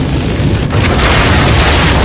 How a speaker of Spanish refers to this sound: La explosión revienta parte de la central. Cascotes de grafito vuelan entre los escombros.